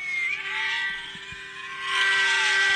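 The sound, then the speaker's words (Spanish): Several alarm sirens wail steadily across a city in China, a sustained overlapping drone that swells louder near the end, with no voices. “Oye las alarmas en China.”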